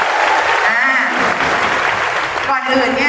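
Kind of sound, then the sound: crowd, loud audience applause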